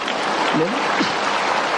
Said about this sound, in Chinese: 我今生今世发了一个愿，你想不想听听看？好，那么大家鼓掌就是赞成啦。